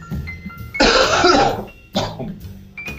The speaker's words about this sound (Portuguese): Eu vou tossir, peraí.